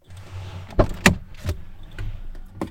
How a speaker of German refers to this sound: Ich warte noch, bis das Auto vorbeigefahren ist. Mhm. Er hält an.